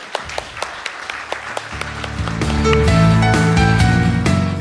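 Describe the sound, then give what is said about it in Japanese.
Sparse, evenly spaced hand claps send off the speaker at the end of an investor-relations presentation by Draft Inc. (TSE Mothers, code 5070), then a bright musical sting swells in and carries the sound to the end. “大きな拍手でお送りくださいありがとうございました”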